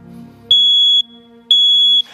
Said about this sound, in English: A smoke alarm goes off. Y'all, the battery done died, and now the smoke alarm's going off.